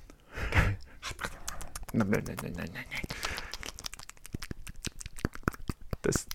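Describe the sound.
A voice imitates shark noises with a rapid, irregular run of breathy gasps, pants and sharp clicking snaps. The bursts are moderately loud and carry no words.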